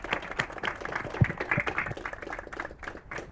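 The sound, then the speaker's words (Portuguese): An audience applauds the speakers at an ITS event, many hands clapping in a dense, crackling wash that holds at moderate loudness before thinning slightly toward the end. “Com isso eu peço para vocês para dar uma salva de aplausos para os nossos queridos palestrantes.”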